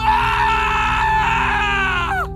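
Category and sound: sound effect, person screaming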